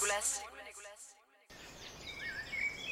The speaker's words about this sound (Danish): Nu kan du høre nogle øh, fugle i baggrunden, og det kommer vi tilbage til.